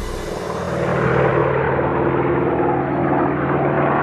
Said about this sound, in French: Nous sommes le 31 juillet 1944, au large de Marseille. Un avion américain traverse le ciel. Aux commandes de ce Lightning P-38, c'est le commandant Antoine de Saint-Exupéry, 44 ans.